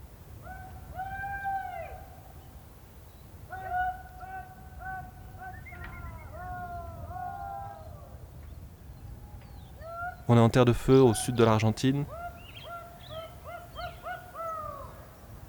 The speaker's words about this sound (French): Des fermes immenses avec euh, des milliers de, moutons. Et on entend au loin des, gens qui font peur aux moutons. Pour que les moutons se réunissent entre eux et pour les apporter petit à petit jusqu'à la ferme centrale.